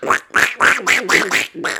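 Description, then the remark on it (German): A person imitates a duck with a run of seven quick, raspy quacks in a steady rhythm, loud and close, with no other talking. “Und dann konnte ich auch mal dieses, ähm, wie so eine Ente, dieses, ich weiß nicht, ob ich es jetzt hinbekomme, ich habe es nämlich lange oh, nicht.”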